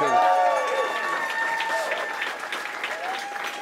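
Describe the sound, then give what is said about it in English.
A concert crowd cheers and applauds steadily for the band, with whoops and shouted voices rising over dense clapping for a few seconds. “Make some noise for the band again, y'all.”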